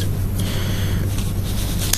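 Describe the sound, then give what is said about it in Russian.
A few sharp scissor snips, spaced irregularly, cut through a steady low hum of background noise. No one speaks. “ножницы, да, есть ножницы, которыми разрезают продукты, есть ножницы, которыми разрезают пакеты, в которых эти продукты находятся”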